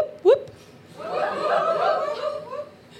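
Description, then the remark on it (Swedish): A live crowd lets out scattered whoops in answer to a call to say 'woop': one sharp rising cry first, then a looser swell of overlapping voices and laughter that builds for a couple of seconds and fades. “Jag märkte många var oklara över hur många whoop det skulle vara.”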